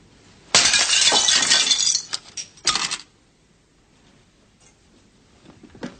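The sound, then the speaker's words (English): Blake smashes Sarkoff's record: a loud crash and a spray of brittle shards, then two shorter cracking breaks before the sound settles into near silence with faint scattered clinks. “And um, that's when we get to the point where Blake resorts to bully boy tax- tactics uh, to get Sarkoff to go by smashing his record.”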